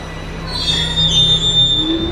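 A metro train's wheels squeal loudly against the rails in a sustained, high-pitched screech, with a low rumbling drone underneath and no voices.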